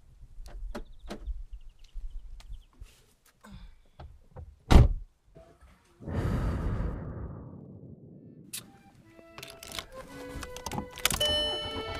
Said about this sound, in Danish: Jeg sidder i min bil. Lige 30 sekunder, inden jeg kører afsted.